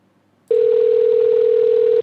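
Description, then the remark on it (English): A telephone line rings with a single steady electronic tone lasting about a second and a half, loud, starting abruptly and cutting off cleanly, with no voices, as a customer's call is transferred to another agent. “You should be able to hear that ringing.”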